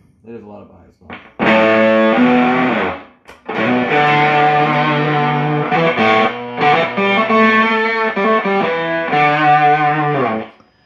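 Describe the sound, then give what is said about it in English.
An electric guitar played through a Jupiter amplifier set to a fairly clean tone with the volume at twelve, ringing out loud sustained chords and notes in phrases, with a short break after the first few seconds. “Now it's just clean tone. I'm still playing through the.”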